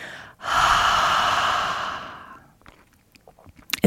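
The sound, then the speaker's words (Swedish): A single long, breathy exhale through an open mouth, as if fogging a mirror, demonstrating ujjayi breathing: a hissing rush of air that swells quickly, holds for about two seconds, then fades, followed by a few small clicks and a faint breath. “Så om du först låtsas att du ska imma en spegel med öppen mun så blir det”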